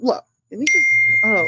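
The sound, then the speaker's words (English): A phone text notification chimes once: a sharp, bright ding that rings on as a steady high tone while a man keeps talking over it. “Lord Jesus, I'm getting texts.”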